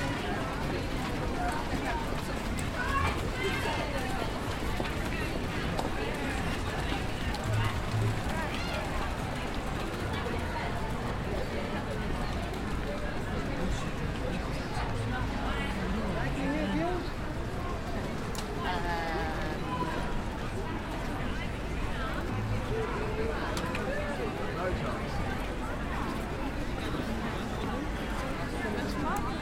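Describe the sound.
A bustling Christmas crowd of holiday shoppers, tourists and families at Covent Garden, London, enjoying the festive lights and street performers, fills the scene with steady, overlapping chatter from many voices, a dense murmur that never lets up, with occasional louder calls rising above it.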